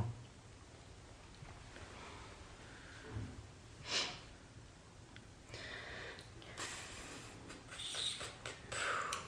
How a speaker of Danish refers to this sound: Du puster lidt på mig.